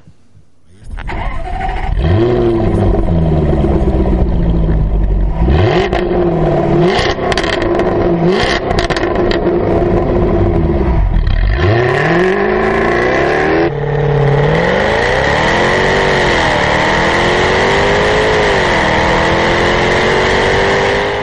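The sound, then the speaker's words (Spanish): A V6 sports car engine, started at the push of a button, roars to life and revs hard several times, rising and falling in pitch, then settles into a loud, steady high idle, with no one speaking. “Te compras este coche, aprietas un botón y suena así.”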